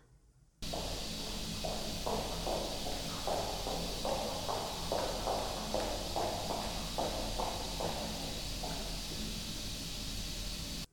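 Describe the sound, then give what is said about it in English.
Hard-soled high-heel footsteps click steadily across the floor above at a walking pace, sounding muffled over a constant hiss of background noise, caught on a digital recorder in a studio during an investigation. “both Prue and Lark heard the sound of high heels on the floor above them”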